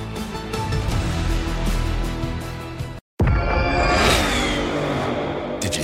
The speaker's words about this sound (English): hear that? That's what an estimated 500 horsepower sounds like.